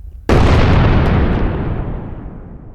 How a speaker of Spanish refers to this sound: En el instante que intenta sacar a la conductora jalando el vestido, una explosión impresionante.